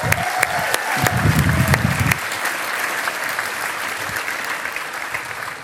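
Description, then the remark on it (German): An audience breaks into steady applause to thank those who took part, a dense wash of many hands clapping at an even loudness, with a few sharper claps standing out early on before the clapping settles. “Einen großen Applaus.”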